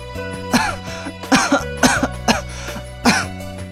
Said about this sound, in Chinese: 袁耀想说些什么，但是刚缓过气儿来，只能一个劲儿的咳嗽。